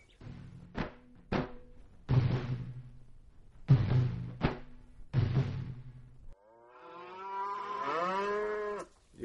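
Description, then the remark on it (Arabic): A grey cow moos loudly, several drawn-out bellows one after another, ending with a long call that wavers in pitch. A couple of sharp knocks sound near the start. “شوف شوف البقرة الشهبة عندها أبو سفير شوف عيونها صفرة شوف حتى خشمها”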